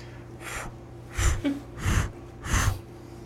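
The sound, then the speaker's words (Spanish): A voice imitates a heart murmur: four breathy whooshing pulses in a steady rhythm, most paired with a soft low thump, with no talking. “Así se escucha un corazón con soplo.”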